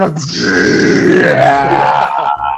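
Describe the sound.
A voice imitates a long, strained grunt of someone pushing hard while defecating on the toilet. It is loud, held steadily for a couple of seconds before trailing off.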